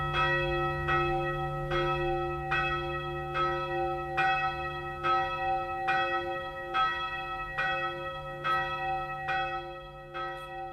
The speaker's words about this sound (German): Und jetzt sind wir nämlich an diesem Übergang von diesen geschmiedeten Glocken zu den gegossenen. Diese Schlierseer Glocken ist eine der ältesten gegossenen Kirchenglocken in Bayern, haben sie herausgefunden. Die hören wir uns jetzt einmal an.